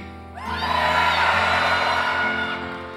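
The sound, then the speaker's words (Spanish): A church audience erupts in loud shouting and whooping, a dense wall of many voices that swells suddenly and holds for a few seconds before easing slightly, with no single speaker standing out. “Eso sucede si usted pega un grito.”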